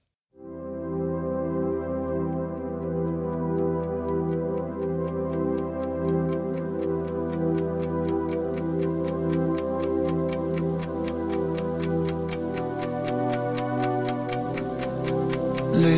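A live Dutch pop song's intro: sustained, layered chords held steadily under a crisp, evenly spaced ticking beat like a clock, with no vocals yet, the low end deepening near the end.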